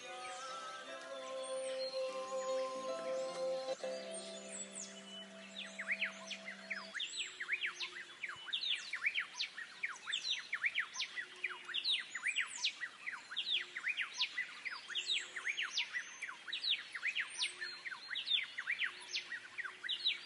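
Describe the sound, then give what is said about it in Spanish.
A small bird chirps rapidly and continuously, with bright, high tweets repeating; a soft sustained tone hums underneath during the first few seconds, then the chirping continues alone. “El pajarito también nos bendijo. No sé qué dijo, pero nos bendijo.”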